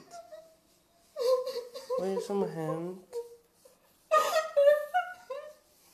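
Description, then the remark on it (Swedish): A woman's voice mimics sobbing with relief in shaky, wavering, quavering cries, fairly loud, broken up by brief spoken words and short pauses. “och satt och hulkgrät på soffan för jag var så jävla lättad.”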